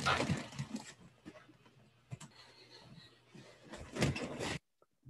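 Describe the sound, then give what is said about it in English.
Shuffling movement and soft knocks, then a person closes a door that a child had just opened; it swings shut with a firm thud near the end, and everything falls quiet. “I'm going to go close my door since my daughter just opened it and make sure they are situated, but I will be back in one minute.”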